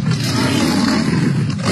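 A Siberian tiger at a tiger park roars in the rain: a loud, rough, deep rumble that holds steady for under two seconds, with no voices over it.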